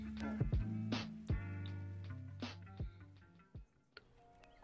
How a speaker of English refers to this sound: He's typing.